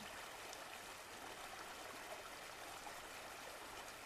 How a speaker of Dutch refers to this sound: En het kabbelende beekje volgt jouw looprichting.